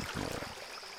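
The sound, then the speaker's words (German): Gently flowing water of the Mandrare River, a steady soft rush with some lower burbling swirls at the start, continuous, with no voices. “Und so trieben sie ganz gemächlich den Mandrare River hinab.”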